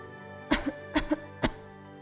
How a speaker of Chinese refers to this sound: 外婆一边咳嗽，一边说：“水，水。”